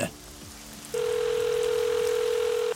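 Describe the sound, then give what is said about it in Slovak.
A steady telephone tone sounds for nearly two seconds, clear and unbroken, as Anders Behring Breivik's spare mobile phone dials the police emergency line at 18:01, over a faint hiss of background noise with no talking. “Anders vyťahne svoj rezervný mobil a vytočí tiesňovú linku polície.”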